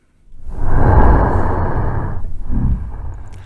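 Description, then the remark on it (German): A deep, breathy rasping sound recorded underwater, like heavy exhaled breaths, from a snapping turtle: one long loud rush followed by a shorter, fainter second burst. “das klingt ein bisschen wie Darth Vader, sind aber tatsächlich die Laute einer Schnappschildkröte, aufgenommen unter Wasser”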